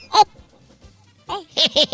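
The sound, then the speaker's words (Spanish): A voice mimics Woody Woodpecker's cackling laugh: one shrill, squawky burst, a pause, then a quick run of three nasal, rising-falling hoots, loud with no other sounds. “No, el albañil no, es un pájaro loco”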